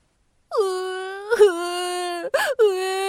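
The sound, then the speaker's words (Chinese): A child cries in a loud, sustained wail, holding a steady high pitch with a couple of short catches and breaths before wailing on again, with no talking. “彤彤着急的哭了起来。”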